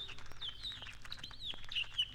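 Birds chirp busily in a steady overlapping chorus, high bright tweets repeating throughout over a faint low background hum.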